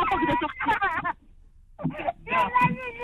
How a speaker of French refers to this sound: Qui pleure à côté comme ça là Alors, c'est mon garçon qui pleure, juste deux secondes s'il vous plaît.